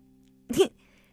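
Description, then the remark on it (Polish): One sharp sneeze bursts out, loud and brief, against a faint steady hum, with quiet before and after it. “Na zdrowie.”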